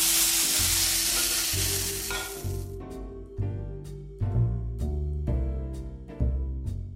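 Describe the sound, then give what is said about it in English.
Loud, steady sizzling of onions frying in a pan, a dense hiss, with occasional knocks and scrapes as the contents are stirred. No one speaks. “Meanwhile, I'm also gonna get on with frying these onions. We're gonna use the same pan.”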